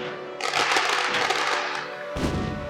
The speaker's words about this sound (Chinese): 惨了。多利放烟火警告他们了。